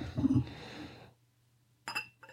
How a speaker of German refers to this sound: Ja, ich würde gerne einschenken, aber ohne Glas. Lass den schwarzen Stoff doch mal ins Glas